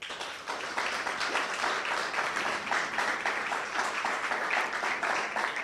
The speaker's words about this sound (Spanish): Bueno, pues dale un fuerte aplauso al Eterno por esto.